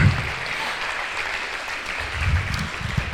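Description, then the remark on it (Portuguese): An audience applauds steadily in praise of the name of Jesus, a dense wash of many hands clapping at an even loudness throughout, with a low rumble underneath and no clear voices. “Aplauda o nome de Jesus. Aplauda.”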